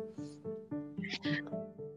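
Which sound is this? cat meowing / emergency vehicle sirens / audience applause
cat meowing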